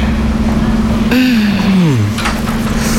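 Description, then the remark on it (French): A fan hums steadily and evenly for the whole stretch, a low constant drone with a brief voice sliding downward over it midway. “T'entends l'espèce de ventilateur”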